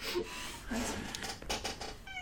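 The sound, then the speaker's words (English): A cat meows a few times in short, soft bursts over a steady noisy background, with a brief higher-pitched call near the end. “Cat hmm. cameo.”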